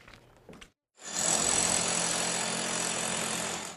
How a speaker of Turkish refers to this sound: Galata Kulesi bu görüntülerle gündeme gelmişti. Restorasyon yapılırken matkapla iç duvarların yıkıldığı görülmüştü.